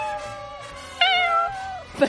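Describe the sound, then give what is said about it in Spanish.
A person imitates a cat, producing drawn-out meowing sounds with wavering pitch, including a louder, higher meow midway and a short final squeak, clear with no other talk. “Ah, el gato sí, pará.”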